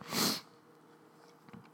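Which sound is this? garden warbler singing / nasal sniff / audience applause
nasal sniff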